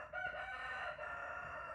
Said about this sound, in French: Rien de nouveau, excepté le coq.